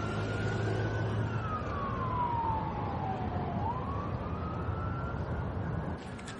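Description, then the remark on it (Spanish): An ambulance siren wails as it speeds at high speed along a busy street, its pitch sliding down then back up as it rushes by over a steady rumble of traffic, with no one speaking. “En la calle una ambulancia circula a gran velocidad.”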